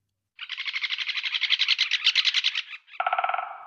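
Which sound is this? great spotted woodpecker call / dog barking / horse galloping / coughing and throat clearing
great spotted woodpecker call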